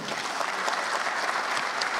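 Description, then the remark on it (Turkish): Sustained applause from an audience filling a hall as front-line witnesses recount the great victory of lands liberated from occupation, a dense, steady patter of many hands clapping at once with no voices heard over it. “İşgalden kurtarılan toprakların cephedeki şahitleri büyük zaferi anlattıkça salonda alkışlar hiç durmadı.”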